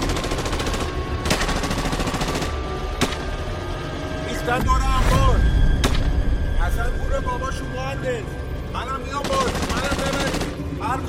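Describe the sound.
Sharp bursts of gunfire crack out at intervals, swelling louder and denser near the middle, with machine-gun-like rattling over a rumbling background and voices underneath.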